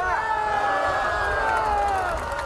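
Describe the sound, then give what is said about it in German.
A crowd of protesters demanding fair elections after the September Duma election cheers a speaker together in a long, sustained shout of many voices, holding a steady pitch that sags slightly toward the end, loud and continuous for a couple of seconds. “Die Leute hören ihm gut zu, jubeln ihm zu, also er scheint seine Anhänger zu bewegen.”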